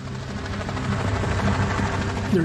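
A helicopter landing on a bank of the Panshir River, its rotor and engine a loud, steady throbbing roar that fills the whole clip, with no voices over it.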